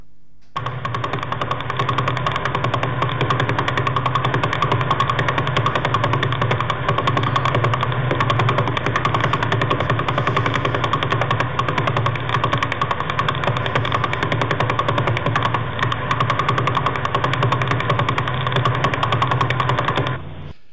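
Radio pulses from a pulsar in the constellation Vela rendered as sound: a rapid, unbroken stream of beats that blur into a steady, rattling buzz, like an idling engine, holding an even loudness for about twenty seconds without any voices.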